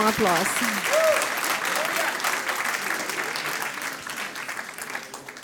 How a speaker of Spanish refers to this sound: Amén. Ahora sí, dele ese fuerte aplauso al Rey de Reyes.